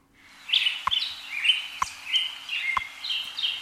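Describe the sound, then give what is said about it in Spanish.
Small birds chirp and twitter at dawn in a lively, overlapping chorus of short high calls, steady throughout with a few sharp clicks, moderately loud, no voices; played on Radio Hora on Friday, 3 November 2023. “Y los pajaritos de Radio Hora indican que comienza a amanecer, que ya está amaneciendo.”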